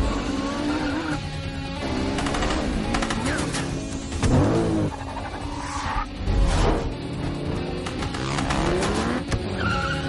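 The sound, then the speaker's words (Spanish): Engines roar as motorcycles chase a red Audi car into a car park, tires squealing and skidding repeatedly, loud and busy throughout, with a dense chaotic chase sound and no talking. “Otras dos motos van tras ellos.”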